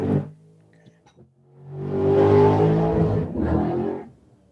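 A racing car engine idles low, then revs up into a loud, roaring burst, dips briefly, surges again and cuts off, close and powerful.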